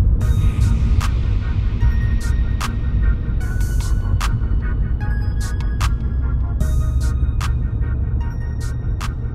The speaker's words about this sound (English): So we're driving uh, on the corridors. Donald Lee Hollowell.